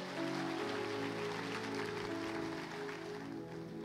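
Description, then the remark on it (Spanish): Sustained audience applause for people after a prayer, a dense, steady patter of many hands clapping, with sustained musical tones humming underneath throughout. “Démosle un fuerte aplauso a estas personas.”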